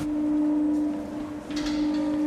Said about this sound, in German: Der hölzerne Glockenstuhl ächzt. Die Glocke beginnt zu schwingen. Ein schöner Schreck, wenn der Klöppel anschlägt.